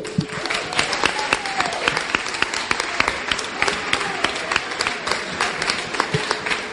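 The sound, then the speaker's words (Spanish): An audience bursts into steady applause for the event's microphone steward, a dense crackle of many hands clapping at once for several seconds, with faint voices mixed underneath the clapping. “Un, un aplauso, azafato.”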